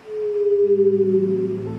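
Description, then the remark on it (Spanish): A whale sings a long, steady moaning note, joined midway by a lower droning tone that wavers slightly. It is loud and clear, with no voices. “Las ballenas cantan hermoso y son enormes y casi no tienen depredadores naturales.”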